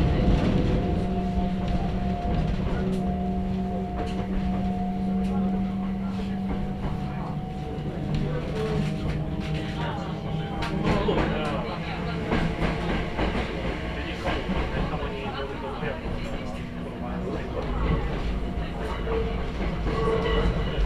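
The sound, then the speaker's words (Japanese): A Hakone mountain railway train runs steadily along the tracks as it climbs into the Hakone mountains toward Gōra, its continuous rumble and droning motor hum broken by scattered wheel clicks and clacks, with an onboard guide announcement speaking faintly underneath. “いよいよこの電車は箱根の山を登ってまいります。”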